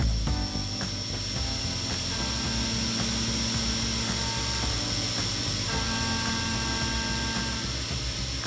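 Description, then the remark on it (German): A precision tool, not a dentist's drill, used daily to help save lives, whirs steadily and loudly, a constant hum layered with high hiss and faint tonal whines, running without pause and with no voices. “Was Sie hier hören, ist ein Präzisionswerkzeug, das täglich hilft, Leben zu retten.”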